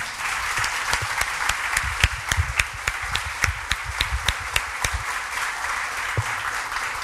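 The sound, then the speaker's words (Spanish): An audience breaks into sustained applause for the Lord, many hands clapping together in a dense wash with a few sharper claps standing out, steady for several seconds before thinning slightly near the end. “¿Le puede dar un aplauso al Señor por esto?”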